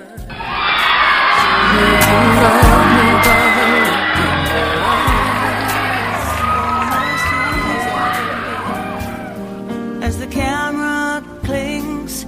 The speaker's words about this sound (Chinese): 好了，现在邀请所有的同学们用最热烈的掌声和尖叫声，邀请我们的朵朵。